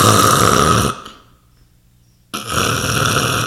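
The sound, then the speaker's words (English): A voice imitates a father with sleep apnea snoring heavily and raspily while asleep on a recliner: a loud, rough snore, then about a second and a half of total silence like held breath, then another harsh, gasping snore bursting back in. “I mean, my father used to have sleep apnea at the end of his life, and sleep apnea additional in your life expectancy.”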